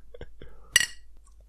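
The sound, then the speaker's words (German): Glasses clink together in a toast, a bright double chime that rings out briefly, with soft, hushed voices murmuring before and after. “Prost, nicht. Prost, Hannes. Prösterchen.”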